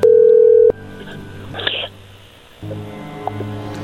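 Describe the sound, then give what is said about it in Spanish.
Telephone dialing tones as a call is being placed: a loud, steady electronic beep lasting under a second, followed by a brief hissy burst, then a low electrical hum with a single short tone blip. No one speaks. “A ver, ahí se está marcando.”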